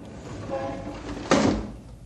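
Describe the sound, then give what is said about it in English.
A window in a skyscraper 40 stories above the street slides along its frame and closes with a single solid bump, over a low steady rumble of street traffic that fades away afterward. “Shut the window, I say.”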